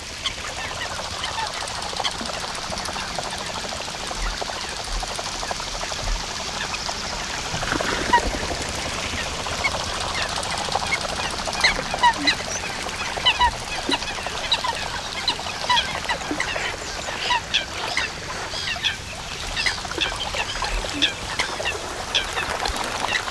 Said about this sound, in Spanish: un chaparrón, una tormenta ha caído en una laguna, ahora escuchamos solamente llover y en el agua la alegría, la alegría de las aves acuáticas, las cochas, los patos azulones, chapoteos, aleteos y la vida que vuelve.